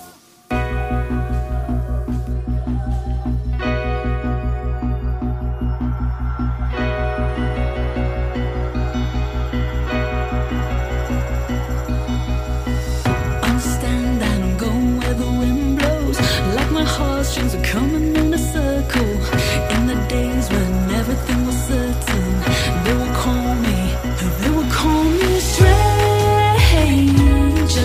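A song opens with a steady, droning instrumental build, sustained low tones and layered harmonics thickening until a fuller band with drums kicks in halfway through, loud and continuous with no vocals yet.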